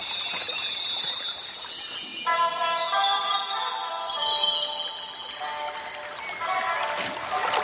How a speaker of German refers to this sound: Eigentlich sagte er ja, folgt dem Bachlauf und nicht wartet durch den ganzen Bach. Ich habe ganz nasse Füße.